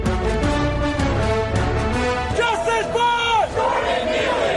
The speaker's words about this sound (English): Protesters demand justice for Jordan Neely, the man choked to death on a New York City subway.